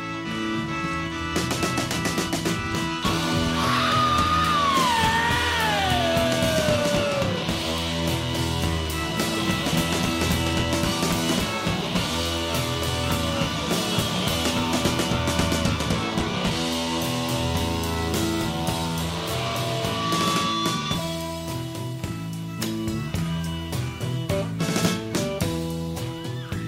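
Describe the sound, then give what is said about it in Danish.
On a live concert recording, a full rock band plays loudly and densely while the singer's raw, high scream near the start swoops downward in pitch, riding over the driving music. “han kan virkelig skrige.”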